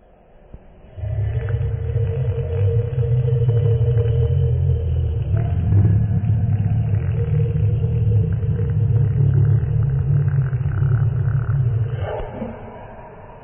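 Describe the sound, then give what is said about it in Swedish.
A person growls a long, deep, rumbling monster roar into the microphone, imitating how they would sound as a monster, sustained for about eleven seconds with a gravelly, throaty texture before fading off. “Men innan det så vill vi utse förra veckans vinnare där ni då skulle helt enkelt spela in hur ni skulle låta om ni var ett monster.”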